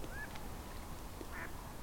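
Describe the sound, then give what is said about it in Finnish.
A couple of ducks quack, short nasal calls spaced apart over a steady outdoor hiss of wind and water, with no voices. “Sorsia muuttaa sekä yöllä että päivällä.”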